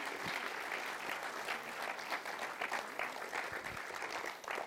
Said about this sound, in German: Komm, lass uns doch einen herzlichen Applaus geben. Komm bitte auf, auf die Bühne.